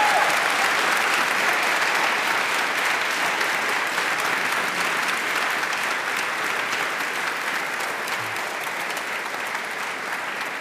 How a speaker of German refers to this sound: Und wir freuen uns riesig und ich glaube, das ist nochmal ein Moment, wo Sie sich als Publikum vielleicht einmal bemerkbar machen können und uns eine Runde Applaus hier vor allen Dingen an unseren Gast geben können.